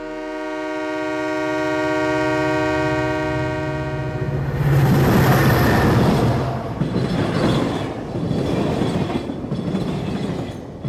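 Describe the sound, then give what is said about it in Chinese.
A train horn holds one long, steady, buzzy note, then gives way to the loud, continuous rumble and rattling clatter of a southbound train travelling from Nantou to Pingtung, rolling and rocking along the tracks. No one speaks. “南下的火车在轨道上摇晃着，单调的声响陪伴着车厢中的简坤忠。”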